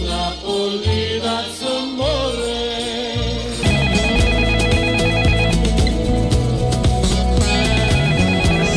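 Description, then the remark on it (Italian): A telephone rings repeatedly in a steady, insistent pattern, its bright electronic tone sounding over busy music with a thudding low end that swells louder partway through. No one speaks. “Chi è che chiama a quest'ora? Pronto?”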